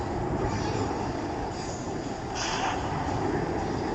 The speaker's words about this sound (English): another aeroplane listeners. Whoa, look at that one. What is that? I don't recognize that airline.